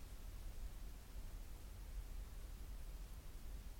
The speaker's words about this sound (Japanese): 聞こえるグラウンドノイズ。で、まあ、ホワイトノイズですね。いわゆるホワイトノイズが入ってるんですよ。まあ、30デシベルブーストすると、明らかに聞こえますね。